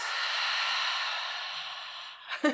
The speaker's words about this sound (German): Atmet auch mal durch dabei. Wir atmen Tief viel zu wenig im Alter. Ein. Und über den Mund wieder aus.